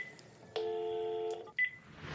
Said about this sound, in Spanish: Bien amigos de Cartuneando, yo les dije que estamos marcándoles por teléfono casi casi de sorpresa, porque ni modo que les marque así de, oye, aquí, aquí estoy, ¿no?